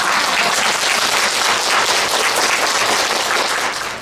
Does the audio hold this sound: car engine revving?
no